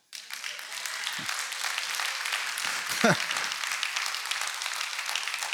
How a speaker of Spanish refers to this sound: ¿No hay un aplauso para Dios por esto?